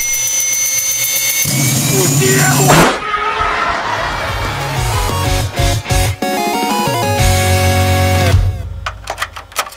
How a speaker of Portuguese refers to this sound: E aí você começa a escutar o teu PC com aquela turbina de avião.